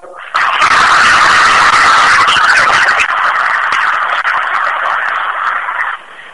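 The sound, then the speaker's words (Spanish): An audience breaks into loud, dense applause, a steady crackle of many hands clapping together that lasts about five seconds before stopping fairly abruptly, applauding the elected representatives and alternates of list 2 in a company committee election. “Eh, de ahí las demás representaciones en la suplencia también la lista 2, para quienes pido un fuerte aplauso.”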